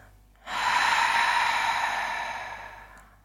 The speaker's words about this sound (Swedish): Tömmer ut luften. Andas in. Andas ut.